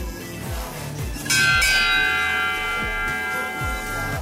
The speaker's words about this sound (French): Il est 8 heures, la cloche sonne. Les enfants rejoignent leur classe.